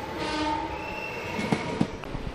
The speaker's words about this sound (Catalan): Ara veiem que se'ns acosta el tren que agafarem per tornar a Barcelona, per aquí a l'esquerra.